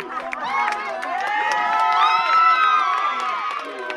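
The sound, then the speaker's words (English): A crowd erupts in joyful cheering as a court decision cancelling a sale is announced, with many overlapping high-pitched shouts, whoops and screams forming a loud, sustained roar that swells slightly before easing off. “And they announced it, and um, the lawyer, they were on the phone with a lawyer, and it just erupted. Everyone erupted.”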